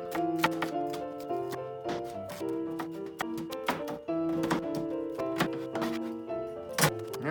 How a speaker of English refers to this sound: And then dice these bad boys up.